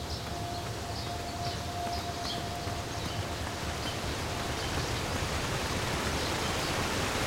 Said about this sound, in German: So, jetzt wieder ein Wasserfall.